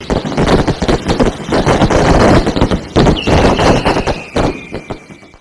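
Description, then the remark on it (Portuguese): A fireworks sound effect: a dense, loud barrage of crackling pops and bangs, with a thin high whistle streaking through midway before the bursts thin out and fade. “Isso, eu peço até sons de fogos de artifício aí para todo mundo que está acompanhando o Namescast.”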